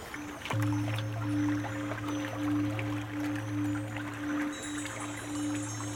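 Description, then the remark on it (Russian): A small rowboat, rowed with an oar by an old boatman away from the shore fog, glides quietly through leaf-strewn lake water, with soft continuous rustling of leaves, light crackles and gentle sloshing, all over a low steady droning hum. No one speaks. “Послушная, лодка тихо шла вперед, шурша припорошившей озерную гладь листвой, оставляя позади темную дорожку.”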